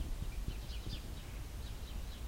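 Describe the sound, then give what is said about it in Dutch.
Faint small birds of several kinds chirp and twitter in short repeated bursts over a soft, low outdoor rumble, with no voices present. “Vogeltjes die zingen.”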